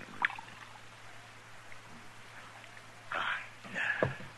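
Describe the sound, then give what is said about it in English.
A drink is poured into a glass in a couple of short, splashy bursts, with a faint earlier clink and a low steady hum in the background. “Have a drink? Just for old time's sake? All right, I'll drink to that. Pour it”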